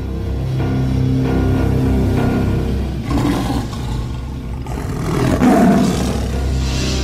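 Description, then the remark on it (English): A lion roars in long, deep, rumbling bursts, loud and gravelly, with a second swelling roar rising in the middle and trailing off in low growls. No one speaks. “Once a lion came to steal a sheep.”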